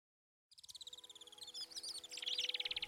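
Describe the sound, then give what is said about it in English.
A rubber tube produces convincing birdsong: rapid, high, trilling chirps in a steady pulsing rhythm that grows louder and busier, with a faint low hum beneath and no talking. “Those bird songs are actually coming from a simple rubber tube.”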